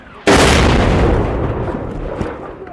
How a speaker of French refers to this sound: Quelques minutes plus tard, des soldats repèrent un drone qui tourne au-dessus de la zone et un deuxième obus tombe sur la terre ferme, cette fois à nouveau tout près